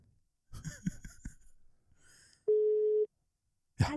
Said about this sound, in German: Versuchen wir es einfach mal. Es klingelt. Es klingelt.